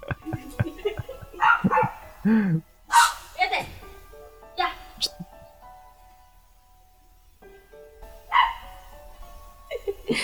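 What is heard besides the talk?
dogs barking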